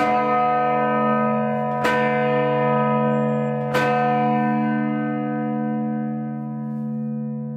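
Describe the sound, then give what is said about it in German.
A church bell rings out, struck twice about two seconds apart, its deep, layered tones sustaining and reverberating long after each strike as the sound slowly fades, the long reverberation mixing with sounds from outside, including the siren of a passing emergency vehicle. “Hier mischt sich ein ewig langer Nachhall mit den Geräuschen draußen, mit einem Martinshorn eines Einsatzfahrzeugs, das draußen vorbeifährt.”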